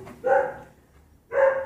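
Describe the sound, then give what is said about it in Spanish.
Two distinct barks from a pet dog kept shut away in the background, about a second apart, each a short harmonic burst, moderately loud, with no talking in between. “Disculpen los ladridos de atrás, ya saben que la mascota está guardada”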